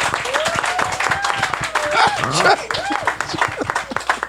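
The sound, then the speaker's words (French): A crowd applauds steadily with dense, continuous clapping, joined by rising and falling cheers and whoops from voices in the audience throughout. “Le monde, ils ont envie d'applaudir.”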